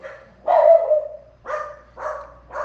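Dogs barking in four loud bursts with short gaps between them. The first bark is long and drawn out, and the later ones are shorter and sharper. No one speaks.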